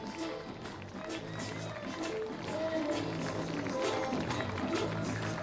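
A crowd claps in scattered, uneven bursts outdoors as a funeral cortege passes, partly buried under a dense wash of voices and tuneful reggae music played on a loudspeaker, at a steady moderate level throughout.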